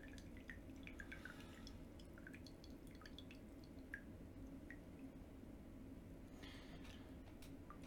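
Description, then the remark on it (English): The last drops of tea drip from a teapot at an irregular pace, fairly soft, over a low steady background rumble; a brief splashy trickle comes near the end. “I always try to get out all the water that it doesn't post brew in your teapot. So really try to get the drops, all the drops out.”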